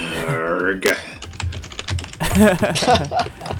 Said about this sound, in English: I'll go ahead and mute him while he's typing. Just instantly angry, typing furiously.